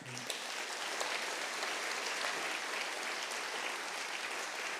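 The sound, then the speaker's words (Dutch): Steady, dense applause from a sizable debate audience for a woman speaker's contribution, a continuous wash of clapping that holds at an even level for several seconds without voices rising above it. “Dus nogmaals een hartelijk applaus voor haar.”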